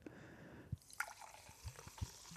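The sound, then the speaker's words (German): Calorie-free fizzy lemonade pours from a bottle into a glass with a soft, hissing fizz, punctuated by a few distinct drips and splashes. Quiet, with no one talking. “Ich nehme mal diese Flasche, äh, dieses Glas in meine linke Hand. Mach mit der Link die Flasche in die rechte Hand, weil heute zischt es.”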